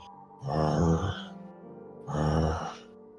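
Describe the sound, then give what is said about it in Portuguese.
A voice imitates the heavy breathing of the dragon Tiamat: two loud, drawn-out breaths, each a rough, airy exhale lasting about a second, separated by a brief quieter pause. “E você vê ali o que parece ser a, o teto da caverna da Tiamat, e você só ouve bem alto assim a respiração dela.”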